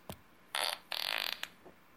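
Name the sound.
fart sound effect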